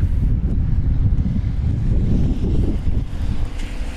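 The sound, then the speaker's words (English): Strong, gusty wind of about 20–25 mph with gusts up to 38 mph buffets a microphone as a bicycle is lifted by its top tube and blown about, producing a continuous low rumbling roar that surges and dips in loudness for several seconds, loud with no voices. “consistently sort of 20, 25 mile an hour winds with gusts of up to 38 miles an hour”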